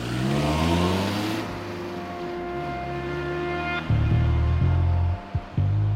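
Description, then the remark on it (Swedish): A silver Toyota's engine revs and accelerates, its steady hum climbing in pitch, with a brief shift near the end as the car pulls off from a postbox. No voices. “Han hämtar något ur postlådan, sätter sig i bilen och kör vidare.”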